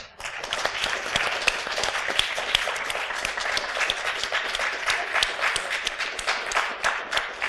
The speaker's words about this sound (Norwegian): Og tusen takk til vårt helt strålende publikum. Dere fortjener å gi dere selv en stor applaus.